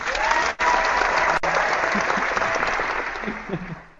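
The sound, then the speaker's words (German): An applause sound effect: a burst of applause from a crowd, dense steady clapping that holds for a few seconds before gradually thinning out and fading at the end. “Ah, Applaus.”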